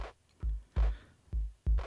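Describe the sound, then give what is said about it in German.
A quiet drum beat played from a sampling record plays on its own: deep, booming kick hits in a steady, slightly swung pattern, with a light snare-like crack over some of them, rather low in volume. “So, hier haben wir auch ähm, gleich einen Beat.”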